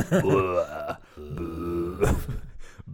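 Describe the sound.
A person imitates a Minecraft zombie groan with their voice in a dark room at night: two drawn-out, wavering moans, low and guttural, fairly loud, separated by a brief pause, with a short breathy burst near the end.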